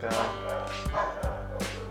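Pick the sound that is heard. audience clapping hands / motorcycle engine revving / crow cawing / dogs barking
dogs barking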